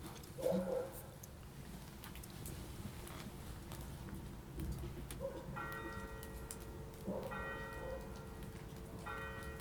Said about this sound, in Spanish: Carrión, lluvia ligera y campanadas. Quizás. Carrión, campanas. En domingo.